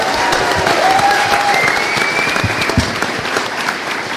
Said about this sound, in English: I apologize for the brief technical delay. Let's everyone give them a round of applause for getting the power back on.